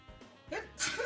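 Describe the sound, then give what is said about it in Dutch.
A single sneeze, preceded by a quick sharp inhale, then a loud hissing burst of breath, with no talking around it. “Gezondheid.”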